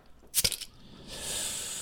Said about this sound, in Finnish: mikäpä muukaan sen oikein voisi aloittaa kuin Trooper IPA, eli kavereiden kesken IPA-oluen korkkaus. Kyllä. Kuulostaa se, about tältä.